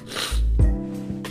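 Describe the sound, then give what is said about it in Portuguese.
A single wet nasal sniffle from a person with allergic rhinitis, a quick breathy intake through the nose with a short snorting rumble, heard alone without any talking. “Por exemplo, vocês vão escutar minha fungada agora.”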